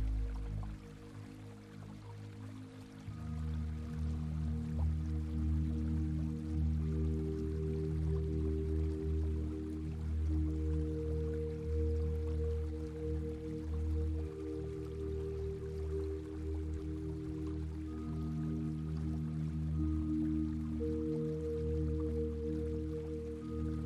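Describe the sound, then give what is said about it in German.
A gently babbling stream flows steadily and softly throughout, its continuous trickle blended with low, sustained humming tones, with no one speaking. “Nimm das sanfte Plätschern des Wassers wahr.”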